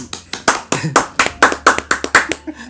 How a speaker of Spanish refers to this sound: ¡Uh! ¡Un aplauso! ¡Uh!